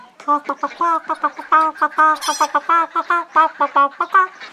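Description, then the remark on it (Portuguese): A person imitates a hen clucking with a rapid, rhythmic run of short, voiced clucks, fairly loud, carrying on steadily for several seconds with no other sounds. “O João, além de cuidar desses bichos, cuidava também da sua coleção de galinhas mágicas. Ele tinha três.”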